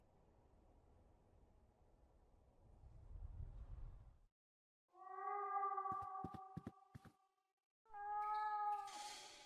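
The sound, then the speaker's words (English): A cat behind a basement wall meows twice in long, drawn-out, plaintive cries, sounding muffled and somewhat enclosed, preceded by low rumbling noise and a few sharp clicks between the calls; no one speaks. “The cat seems to be behind this wall.”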